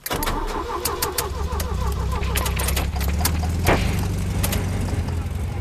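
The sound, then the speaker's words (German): Loud engine rumble from four tuned sports cars driving east from Frankfurt, growling and revving steadily for the whole stretch, with sharp clicks and rattles cutting through the deep, continuous drone. “Mit vier Autos, frisierten Sportwagen, fahren die Frankfurter gen Osten.”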